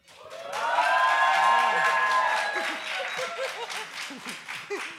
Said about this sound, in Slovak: Toto asi nezažijeme potom na konci. Dúfajme, že to nebol posledný potlesk dnešného večera.